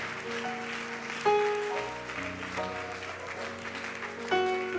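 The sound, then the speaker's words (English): An audience claps together in a dense, continuous wash of applause, mixed with sustained keyboard chords that shift every second or so; no one speaks over it. “If you believe that, can you clap your hands? All over this house.”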